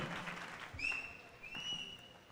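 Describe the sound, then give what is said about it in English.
An audience claps hands in a soft, steady patter, joined midway by thin, sustained high-pitched whistling tones layered over the clapping. “How many of you clap your hands?”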